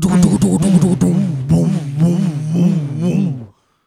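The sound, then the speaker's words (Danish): A voice imitates the very heavy bass from a soundbox carried by a teenage boy riding a kick scooter, sounding like a distorted, buzzy ambulance siren, its pitch swooping up and down in a steady wail for about three and a half seconds, loud, then stopping abruptly. “At altså, det lyder først som sådan, jeg tænker, er det, er det en ambulance, som har lidt knas med, med, øh, med lydsystemet, ikke?”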